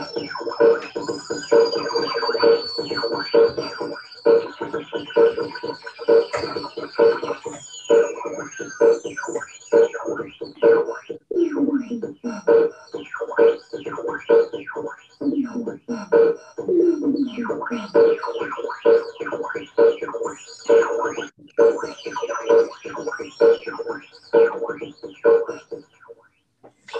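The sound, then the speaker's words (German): An odd electronic intro track plays loud and continuous, with choppy rhythmic pulses, swooping pitch sweeps and cooing, bird-like effects throughout; no one talks over it. “das Intro heißt Intro Best Prodo. Das war wahrscheinlich eins der komischen Intros, die ich je gehört habe”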